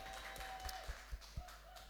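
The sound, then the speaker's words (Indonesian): A small group applauds with scattered, uneven claps at a moderate level for the guests called Chemistry at an evening show. A few sharper hand claps stand out over a faint steady background tone. “Geng, tepuk tangan dulu dong buat chemistry malam hari dong.”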